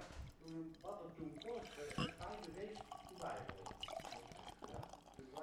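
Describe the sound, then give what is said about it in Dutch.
A cloudy, unfiltered beer is poured steadily into a glass, a gurgling, splashing fill that runs for several seconds while voices talk over it. “Ik, schenk, ik ga hem inschenken hoor.”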